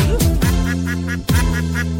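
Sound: duck quacking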